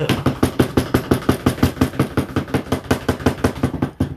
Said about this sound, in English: Big dog, we have that drum roll, please?